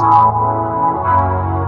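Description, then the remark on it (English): A loud, muddy hip-hop beat plays on its own for a couple of seconds, heavy low end smearing into the thick midrange with no voices. “So if you're a producer or you're an MC or even a singer and your beats sound like this”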